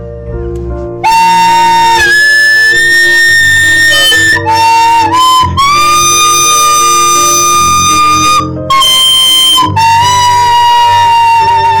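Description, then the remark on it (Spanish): A flute plays a slow melody of long, sustained notes that step up and down in pitch, with piano accompaniment underneath, in a home recording. It's loud and steady, with no voices. “entonces te voy a poner una pieza que he grabado para que tú me digas a ver si, si, ¿Cómo lo ves?”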